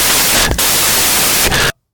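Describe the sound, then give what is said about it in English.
A loud, harsh wash of fuzzy guitar distortion noise, steady and hissing, with two brief crackling surges before it cuts off abruptly. No voices. “… started making the noise that a guitar makes”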